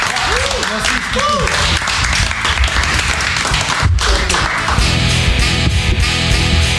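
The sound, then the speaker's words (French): Loud, sustained applause from a crowd, a dense patter of many hands clapping for several seconds, with voices and cheers mixed in and a brief dip midway before it swells again. “Applaudissements.”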